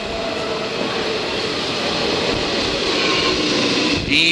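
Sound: metro train running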